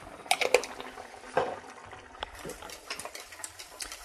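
Stirring a potato salad dressing of vinegar, sugar, salt and pepper in a bowl, with quiet irregular clinks and scrapes of a utensil against the sides and a soft, wet swishing underneath.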